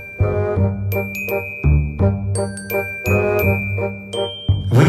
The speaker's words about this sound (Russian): Вернулся Питер в кабинет в три часа и уже было выбросил Джейн четыре квадрата из головы, когда зазвонил служебный телефон.